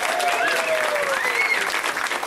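A crowd at a stand-up comedy show claps steadily for a couple of seconds for a comedian finishing his set, a dense, even roar of hands with a few rising whoops or whistles riding on top, holding loud throughout.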